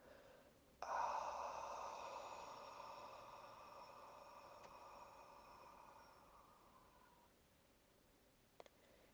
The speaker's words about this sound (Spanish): Inhalas por la nariz en seis segundos, inflando tu abdomen como si fuera un globo.